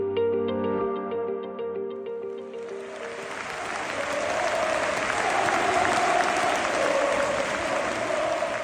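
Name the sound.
stadium fans clapping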